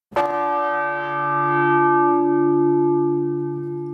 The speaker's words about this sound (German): Ihre Nachbarin im eichernen Glockenstuhl heißt Tagmessglocke. Sie wiegt zwar nicht einmal ganz die Hälfte der Christusglocke, ist dafür aber umso erfahrener an Jahren. Es sind deren 399, um genau zu sein.